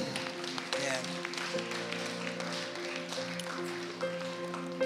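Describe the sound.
An audience applauding, a dense steady wash of many hands clapping that lasts the whole stretch, with a sustained tonal hum or chord underneath and murmuring voices mixed in.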